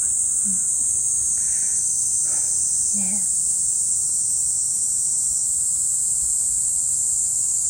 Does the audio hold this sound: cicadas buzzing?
yes